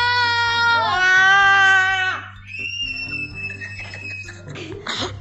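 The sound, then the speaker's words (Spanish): Loud, high-pitched screams follow one after another as people take turns screaming in a group round of screams: a long, strained shriek, then a thinner, piercing one from a different voice, and a brief ragged cry at the end. “Bueno, ahora vamos a dar una vuelta por todos dando gritos.”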